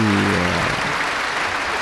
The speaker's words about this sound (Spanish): vuelve a salir otra vez el director, ya sabéis que hay como una especie de formalidades, otra vez ovación de nuevo para nuestro director virtual, la verdad es que esto de poder vivirlo en directo es, es la leche.